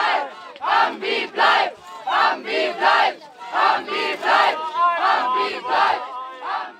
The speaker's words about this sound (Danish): Det vi lige hørte her, det var et klip fra nogle af de demonstrationer, der foregik i 2018, hvor miljøaktivister besatte skoven Hambacher Forst.